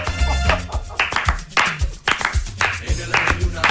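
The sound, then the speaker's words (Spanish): Steady rhythmic hand clapping (palmas), doubled up: sharp bright claps landing roughly twice a second in an even beat, with a low tonal hum underneath. “vamos a doblar las palmas.”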